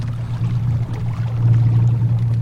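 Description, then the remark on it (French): A low, steady electric boat motor hum drones beneath a soft wash of water as the boat travels at its full speed of about 4 km per hour, with no voices present. “C'est calme hein, comme moteur ça change tout. En fait, le, fait d'avoir que des moteurs électriques, ça change tout.”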